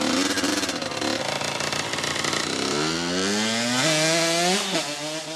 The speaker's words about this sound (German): Ihr Ventil aber ist der Speed, der Geruch von Benzin und der Sound eines knatternden Motorrads, die Freiheit, die sich einstellt, wenn sie, ganz klischeehaft, mit dem Tank zwischen den Beinen Vollgas gibt und mit röhrendem Auspuff davonbraust.